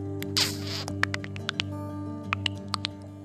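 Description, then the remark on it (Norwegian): A breathy hiss is followed by a string of sharp, irregular mouth clicks and ticks, fairly quiet, a person making an eerie alien-like thinking noise with their mouth, with no talking. “Hørte du tenkelyden min?”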